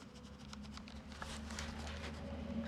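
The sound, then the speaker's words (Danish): Quick, irregular scratching strokes of a pen as a man draws on a paper coupon, fairly soft, over a steady low background hum with no one talking. “Og så begynder han at tegne.”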